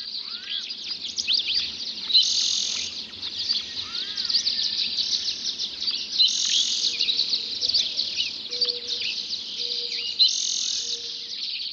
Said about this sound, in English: There is a hidden order in the cacophony of song. The first birds to sing are usually the ones perched highest in the tree canopy. They are the first to see the sun. The birds lower down join the chorus as the light reaches deeper into the canyon.